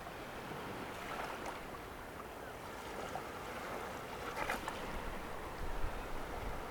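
A steady wash of ocean water fills the whole stretch, with waves surging a little louder near the end. Wind hisses faintly over it, and no one speaks.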